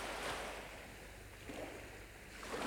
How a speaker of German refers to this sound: Ich sehe das Meer und das Meer sieht mich.